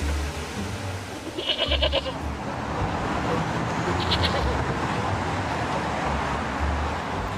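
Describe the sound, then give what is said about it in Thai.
Two short, pulsing bleats from a goat named Foret being led into a restaurant, one early and one a little later, over a steady, noisy background rumble like traffic. No one speaks. “เมื่อไปถึงภรรยาของเจ้าของฟาร์มก็จูงมันเดินเข้าไปในร้าน พนักงานได้เห็นแพะเข้ามาในร้านก็ทำท่างง”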